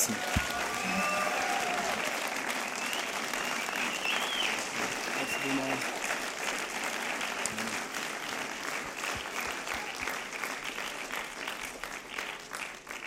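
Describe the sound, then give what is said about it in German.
An audience at a church service claps steadily for about thirteen seconds for the volunteers of the children's program, a dense, sustained wash of many hands, with a few faint voices and whistles mixed into the crowd. “und all den Leuten, die immer im Kinderexpress mitarbeiten, mal einen Applaus geben.”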